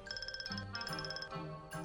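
A mobile phone ringtone plays a quick, bright electronic melody of rapid pulsing beeps that repeats in short phrases, fairly quiet and alone with no voices, as a call from an unknown number comes in at night.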